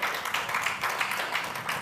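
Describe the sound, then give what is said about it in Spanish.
A crowd applauds the Lord during a religious service, many hands clapping steadily in a dense, continuous patter with slight surges in intensity, no voices standing out over it. “Denle un aplauso fuerte al Señor, por favor.”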